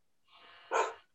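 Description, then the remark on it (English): A single sharp bark from Rockwilder, a pit bull kept as an emotional support animal, preceded by a short whiny breath or whimper, loud against a quiet background with no talking. “That's my pit bull. I apologize.”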